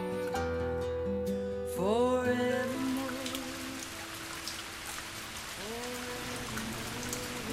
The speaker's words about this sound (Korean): 또 비가 내리네요.